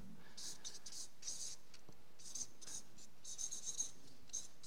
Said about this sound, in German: Und ich schreibe das mal hier als ersten Punkt hin.